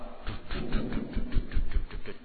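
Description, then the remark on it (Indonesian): Someone vocally mimics a helicopter, producing a steady run of quick, chopping whup-whup pulses for about two seconds, fairly loud, with no other talking. “datang helikopter.”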